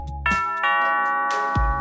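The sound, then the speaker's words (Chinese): The doorbell of a detective agency chimes a ringing ding-dong, its bright tones striking twice and sustaining, then struck again near the end alongside a low thud. No one speaks. “这时候，侦探社的门铃响起来喽。”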